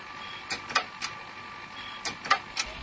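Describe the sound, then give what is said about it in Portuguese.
A failing 100 MB pocket hard drive's click of death: two sets of three sharp mechanical clicks, spaced about a second apart, over a faint steady whir, with no voices. “Léo, bota o sonzinho do clique da morte.”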